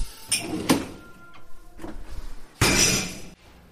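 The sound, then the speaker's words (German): Dishes clatter and clink as they are loaded into a dishwasher, with a few sharp knocks of crockery and a longer rattling burst near the end, fairly loud with no talking. “Ah, lass mal, ich räume die Spülmaschine ein.”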